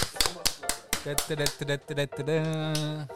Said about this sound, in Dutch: Oh, Moet even klappen.